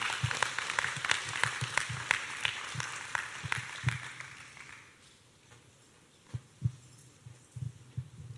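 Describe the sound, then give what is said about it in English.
People at a morning church gathering clap steadily for about five seconds, giving a hand to the Lord before a Harvest 201 testimony; the applause then thins out into a few scattered, sharp claps before fading. “So let's give a hand to the Lord as we uh, hear her testimony.”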